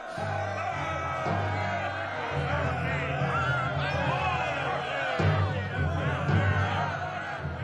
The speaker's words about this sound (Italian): La folla è impaziente, Sire!